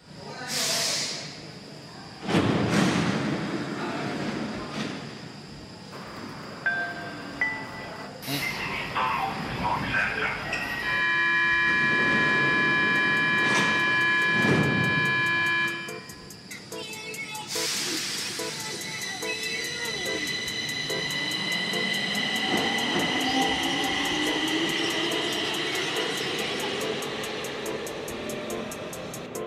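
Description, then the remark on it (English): A train passing by: a loud, steady rumbling roar lasting the whole stretch, with high metallic squeals and whining tones rising over it and some muffled voices underneath. “Yo, fucking train.”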